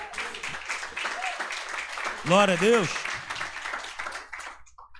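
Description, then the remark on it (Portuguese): A church audience applauds the Lord during a sermon, a steady, dense, crackling wash of clapping that fades near the end, while a voice rises over it with a loud sung-out exclamation. “Aplauda o Senhor aí por isso.”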